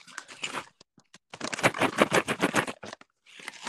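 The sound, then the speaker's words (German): Small 1, 2 and 5 cent coins rattle and clatter inside a container, a bright metallic jangle in uneven bursts with a few sharp clicks and short pauses, shaken harder through the middle before a final brief rattle. No one speaks. “1, 2 und 5 Cent Stücke. Ähm, die Goldmünzen habe ich da gar nicht drin, weil die Goldmünzen nehme ich ganz oft für Parktickets.”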